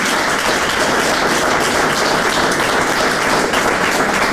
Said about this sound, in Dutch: Maar wel een applaus